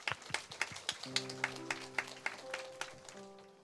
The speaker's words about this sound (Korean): 나올 때 우리 박수로 한번 맞이 주시면 감사하겠습니다.